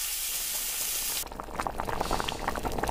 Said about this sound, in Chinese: 所有的食材都准备好后，狐狸开始炒洋葱和蘑菇。